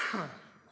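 A single short, raspy cough blending into a throat clear, starting sharply and fading out within a moment, with no talking.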